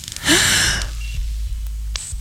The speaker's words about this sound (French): et eh ben, je pouvais plus du tout respirer normalement. Je pouvais plus prendre de grandes respirations comme ça.